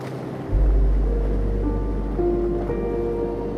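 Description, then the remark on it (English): A steady, rushing wash of ocean surf swells in after a brief quiet start and rolls on continuously, with faint sustained musical tones drifting underneath. “Floating in the loving embrace of the sleepy ocean.”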